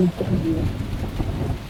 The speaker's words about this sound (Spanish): Oscuridad, estrellas, la luna. Una tormenta.